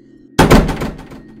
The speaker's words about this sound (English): I opened it there was an old woman standing by a bunch of boxes. She was slowly but loudly slamming her hand on one of the boxes, producing an unnatural sound.